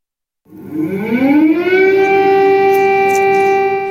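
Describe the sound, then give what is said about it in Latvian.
An air raid siren sounds across Ukraine in the morning after reports that Russia fired dozens of missiles. It starts after a brief silence, its tone sliding upward as it winds up, then holds a loud, steady wail with strong harmonics. No voices are heard. “Gaisa trauksme šorīt tika izsludināta visā Ukrainā, jo tika saņemtas ziņas, ka Krievija kārtējo reizi izšāvusi desmitiem raķešu.”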